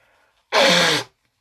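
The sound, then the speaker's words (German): A single sharp, loud sneeze caused by a pollen allergy bursts out, lasting about half a second, with faint quiet before it and silence after. “Und deswegen muss ich halt auch drei, vier Mal niesen gerade.”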